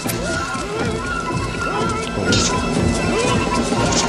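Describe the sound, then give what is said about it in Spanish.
A knife stab sound effect with sharp, wet impacts inside a dense, chaotic mix of shouting voices and commotion from a 1970 film depicting the killing of Julius Caesar, the hits landing loudest about halfway through. “Navajazo.”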